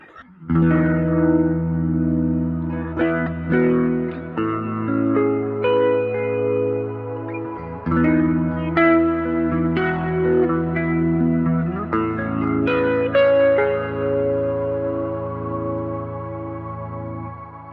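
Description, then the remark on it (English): Electric guitar chords, close to the basic amp sound, ring out through an Ionosphere shimmer reverb, with long sustained tails that blend into a soft, angel-choir-like pad mixed very low in the background. No one speaks. “So this is nearly the basic sound, but uh, I added the the ionosphere reverb just to have this, uh, yeah, angels choir in the background.”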